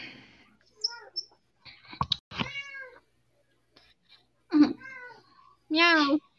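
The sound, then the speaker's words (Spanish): A female cat, coming to say hello, meows several times: a few small chirpy calls, then clearer meows, ending with a loud, drawn-out one, with short pauses between and no one talking. “Mi gata vino a saludar.”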